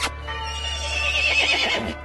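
A single horse whinnies loudly, a long shrill neigh lasting about two seconds that wavers and trembles before cutting off, with a steady low hum underneath.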